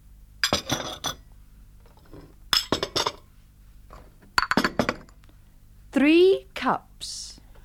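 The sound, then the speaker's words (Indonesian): Three short clusters of bright clinks, like china teacups tapped together, followed near the end by a brief rising, voice-like sound. “Tetapi cangkir teh dapat kita hitung.”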